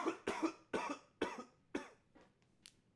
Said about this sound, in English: Hold on, I got a cough again.